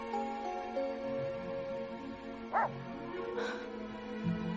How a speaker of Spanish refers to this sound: Se gira en la dirección de donde provienen los ladridos y vuelve a mirar el lugar donde estaba el ciervo.